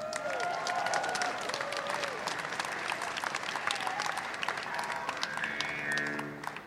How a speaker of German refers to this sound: Okay, und zusammen. Somnia, somnia. unglaublich. Bitte einen Applaus für die zwei Gruppen.